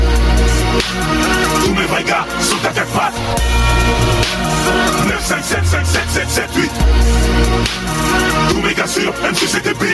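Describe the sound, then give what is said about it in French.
A loud rap track from the film Coexister plays, with a heavy booming bass line and punchy drum hits while a male voice raps in French continuously over the beat for the whole stretch. “le petit son que vous avez entendu, c'est euh, le meilleur parti de coexister, à mon avis.”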